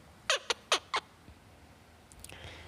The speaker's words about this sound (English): So today we are going to have a meditation with birds. So we have five birds around us. Papillou, we have Papo, we have Bonnie, we have Flippity, and we have Cayucha.